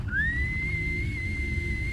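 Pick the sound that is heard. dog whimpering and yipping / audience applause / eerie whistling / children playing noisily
eerie whistling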